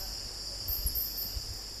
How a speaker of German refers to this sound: Morgengrauen im gefühlten Nirgendwo Botswanas. In der Stille und Einsamkeit des Okavango-Deltas klingen die Grillen und Frösche fast ohrenbetäubend.